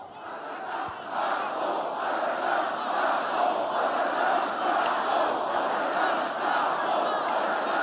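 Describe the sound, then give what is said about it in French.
A large crowd of Éric Tournesol's supporters chants and shouts together at a rally at the Trocadéro, a dense, steady roar of many voices that stays loud and continuous throughout, with no single speaker standing out. “Et ce matin, le professeur Éric Tournesol était l'invité de Sonia Mabrouk pour réagir à la polémique et donner son explication face à son silence, face à ce qu'ont scandé ses militants.”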